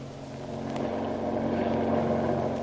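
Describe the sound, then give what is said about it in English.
A fast patrol boat's engine drones loudly and steadily as it hunts a submarine, its throaty roar swelling a little as it speeds along, with a rushing wash of noise beneath it and no voices. “The authorities put at his disposal a speedy patrol boat, and the hunt for the submarine is on.”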